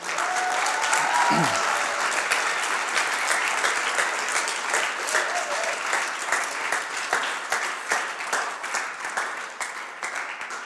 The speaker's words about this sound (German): Lasst uns mit einem Applaus mindestens bedanken.